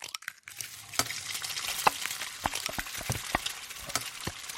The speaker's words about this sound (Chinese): 他磕了三个鸡蛋，然后轻巧的快速搅拌开。